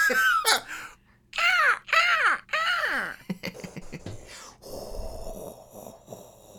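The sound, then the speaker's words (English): Voices mimic seaside sounds as homemade sound effects: a run of loud, arching gull-like cries, a few quick clicks, then a breathy, shushing whoosh like a wave washing in. “I think we've I think we've got Ocean Sounds unlocked.”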